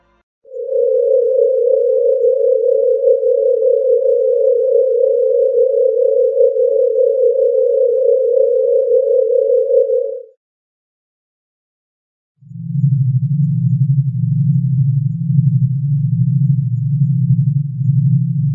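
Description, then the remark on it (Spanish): A sonified star pulsation, with the pulsation frequency of three stars multiplied by 3 million to make it audible: a steady, loud mid-pitched tone holds for about ten seconds, then after a short silence a lower, slightly wavering drone takes over until the end. “Sí, sí, esta primera imagen es nada más la pulsación de la estrella y cómo se traduce esa pulsación a sonido visible directamente.”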